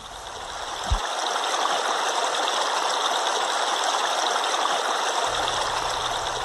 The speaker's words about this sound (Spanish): Toco el arroyo. Los peces que dibujo se van nadando.